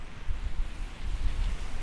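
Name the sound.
wind rustling leaves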